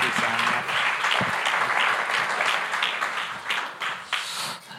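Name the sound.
audience clapping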